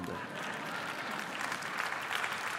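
An audience claps in response to a line that money offers security, a steady, dense wash of applause that holds at an even, fairly loud level for a few seconds without letting up.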